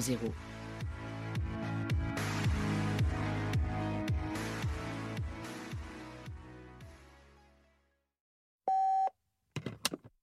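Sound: answering machine beep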